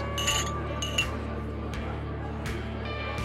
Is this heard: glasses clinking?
yes